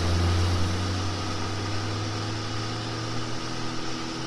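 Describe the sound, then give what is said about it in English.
A wood chipper, with a man throwing trees into it, and a bucket truck running together as trees are cut and chopped up: a steady, loud engine drone with a deep rumbling hum and broad mechanical noise over it, continuous throughout with no voices. “And he is uh, throwing trees into what we call a chipper, actually.”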